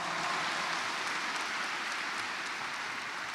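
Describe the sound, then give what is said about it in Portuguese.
An audience applauds the Gospel reading they have just heard, a dense, even wash of many hands clapping at a constant level throughout, with no voices heard above it. “Vamos aplaudir a palavra que ouvimos.”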